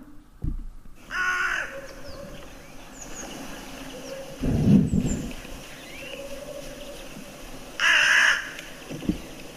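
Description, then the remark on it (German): A hooded crow gives three harsh, rasping caws, spaced a few seconds apart, with quiet outdoor ambience between the calls. “ich lasse die Nebelcreme mal abspielen, so hört sie sich an.”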